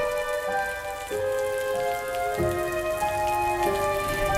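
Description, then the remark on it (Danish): Steady rain of a wet May day in 1934 patters continuously and evenly throughout, while waiting for the boat to Sprogø, blended with sustained, droning musical tones that shift pitch a few times. No one speaks. “En regnvåd majdag i 1934 stod Ingeborg med sin kurvekuffert og ventede på båden til Sprogø.”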